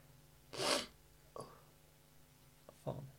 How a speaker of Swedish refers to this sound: Nyser du nu? Jag har pollenallergi.